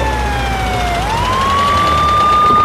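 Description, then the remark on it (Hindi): A loud ambulance siren wails steadily as an ambulance arrives, its tone dipping then sweeping back up into a sustained high pitch, with low traffic rumble underneath and no talking. “अरे हटो हटो भाई साइड हो जाओ एम्बुलेंस आ गई है”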